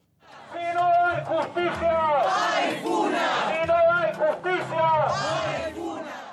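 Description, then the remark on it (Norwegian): A crowd of protesters in an action by the group Fona on the outskirts of Santiago, Chile, shouts the slogan 'If we don't get justice, we act ourselves' in unison. The loud, rhythmic chanting has rising and falling voices repeated in waves over several seconds, with no other sounds. “Hvis vi ikke får rettferdighet, handler vi selv, roper deltakerne i denne aksjonen i utkanten av Chiles hovedstad Santiago.”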